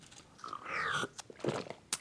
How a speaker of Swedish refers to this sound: Jag ska nu bara ta en klunk